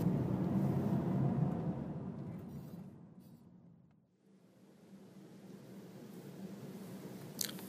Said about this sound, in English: Can can you hear that air conditioning? Is that going to be too distracting? Yeah, probably not.